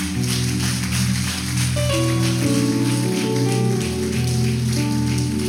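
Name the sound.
audience applause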